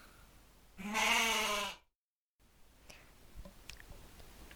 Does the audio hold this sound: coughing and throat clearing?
no